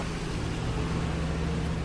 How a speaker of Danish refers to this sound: man skulle tro, vi gik på, man skulle tro, vi gik på motorvejen, så meget ja. det larmer her.